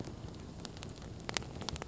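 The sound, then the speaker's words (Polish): Quiet, irregular crackles and pops of a small campfire that is dying down as more wood, some of it damp, is added, over a soft, steady hiss, with a few sharper snaps near the end and no voices. “Ja dorzucę trochę drewna, bo znowu nam ogień tu przygasa.”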